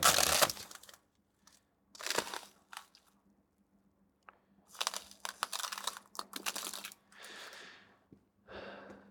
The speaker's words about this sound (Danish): Og lyden af is, synes jeg bare er lækker.